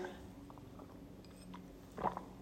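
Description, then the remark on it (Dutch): A quiet sip of water: faint wet mouth noises and a soft swallow, then a slightly louder gulp near the end, with no talking. “Excuus, even een slokje water.”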